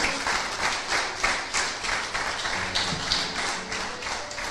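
crowd, audience clapping and applauding

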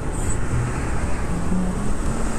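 vehicle, highway traffic noise

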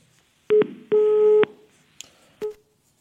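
signal or alarm, telephone call tone

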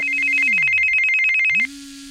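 signal or alarm, telephone ringing

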